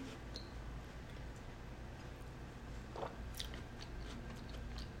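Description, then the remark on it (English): Crunching of a brittle cookie being bitten and chewed between sips of wine, a few sharp crackly bursts over a steady low hum, with no talking. “Crunch.”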